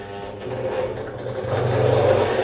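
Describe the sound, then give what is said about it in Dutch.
A honey extractor starts to spin slowly, extracting honey from the combs. Its motor gives off a steady, droning hum with a low whirring tone that gradually swells louder over a couple of seconds. No one speaks. “Het slingeren zelf moet heel rustig gaan gebeuren. Want als je knalhard gaat draaien, dan zijn je raten gelijk stuk.”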